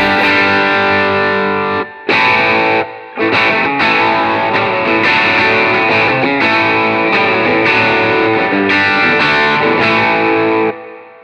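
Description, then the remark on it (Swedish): Electric guitar played through an overdrive pedal set to about unity gain with its controls at twelve o'clock, thick sustained distorted chords ringing out loud, broken by two brief pauses near the start before carrying on steadily, with no voices. “vi börjar med overdrive-läget.”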